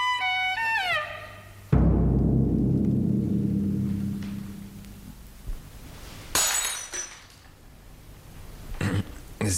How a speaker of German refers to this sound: haben das Glas fallen lassen, Herr Doktor.